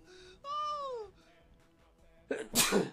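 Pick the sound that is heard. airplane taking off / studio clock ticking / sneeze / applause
sneeze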